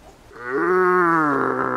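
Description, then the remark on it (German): A hunter at dusk imitates a rutting stag's roar, pretending to be a rival challenging a real stag: a single long, deep, bellowing call that swells after a brief start and holds steady, loud, with no other sounds. “Nein, das war kein Hirsch, das ist der Jäger. Der tut so, als sei er ein Rivale, der den echten Hirsch herausfordert.”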